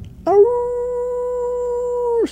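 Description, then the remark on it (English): A single long dog howl heard on walking out of the house, a steady mid-pitched wail held for about two seconds with rich harmonics, rising at the start and dropping off sharply at the end, heard on its own. “We, we were convinced that he, we were convinced for three or four years of our lives, I think, that he could actually turn into a werewolf.”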